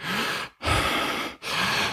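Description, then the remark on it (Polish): Rapid, forceful breathing demonstrated: three loud, airy breaths in quick succession with only brief pauses between them, like hyperventilation, and no talking. “Po prostu takie, czy właśnie branie głębokich wdechów, takie westchnięcia bardziej takie e, versus oddychanie skrzyniowe e, versus hiperwentylacja, czyli bardziej takie”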